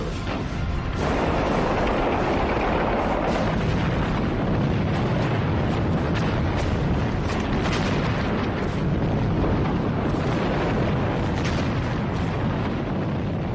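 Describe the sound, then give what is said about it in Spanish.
A dense barrage of Japanese artillery and gunfire raining on American troops landed on the southwest coast of Iwo Jima: deep booms and sharp cracks pile up without pause over a constant roaring rumble, loud and chaotic for the whole stretch, with no voices. “Después, una tormenta de fuego japonés llueve sobre ellos.”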